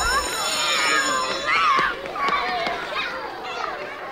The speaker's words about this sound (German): Die Kinder stürmen in die Klasse.